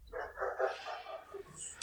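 A hungry dog lets out a quick run of barks and yelps, followed by softer, higher whining sounds trailing off at the end.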